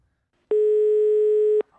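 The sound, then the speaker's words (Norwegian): A steady telephone dial tone from a payphone in a phone booth on a street corner, used to call and book catering, hums at a constant pitch for about a second, starting and stopping abruptly, loud, with silence around it and no voices. “Det står jo en telefonkiosk på hjørnet. Jeg bruker bare den.”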